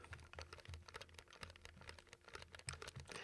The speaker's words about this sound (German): Und jetzt hört ihr die unpräzisen C64 Mini-Joystick Druckkontakte.